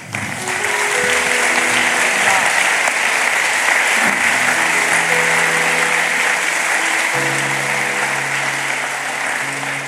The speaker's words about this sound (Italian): Facciamogli un meraviglioso applauso.